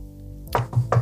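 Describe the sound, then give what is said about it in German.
Three quick knocks on wood in an even rhythm, each a dull, hollow thud with a sharp attack, with no talking over them. “Ich musste mhm. kurz auf Holz klopfen, Entschuldigung.”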